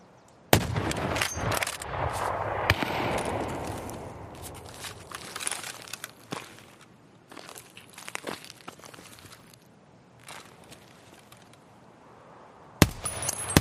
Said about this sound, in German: Da habe ich äh, erst mit der M700 mit dem Scharfschützengewehr geschossen und dann mit der MDA mit dem Sturmgewehr. Das hören wir uns jetzt mal an.